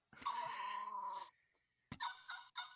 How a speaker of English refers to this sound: He's like a dog, I guess. Weird. But he's purple, and you push, you just tap him, and he makes dog sounds for no reason at all.